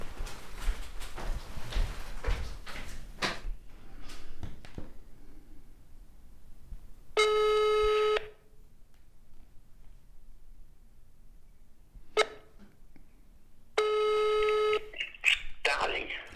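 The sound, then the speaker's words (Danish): A phone call's ringing tone sounds twice, each steady electronic burst lasting about a second with long silent gaps between, after some quick clicks and taps at the start, as someone phones their father. “Jeg ringer lige til ham.”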